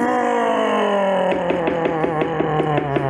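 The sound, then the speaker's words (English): A man's voice imitates a car engine struggling after he lifts off the throttle, a steady droning groan that slowly drops in pitch and then breaks into a fast, regular knocking pulse for the last couple of seconds. “Well, so when I lift off the throttle, it's making bad noises.”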